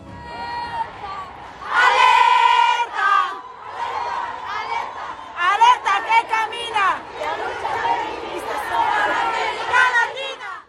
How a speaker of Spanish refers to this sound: Durante toda la marcha fuimos gritando peticiones de respeto, igualdad, justicia y sobre todo no más violencia hacia las mujeres.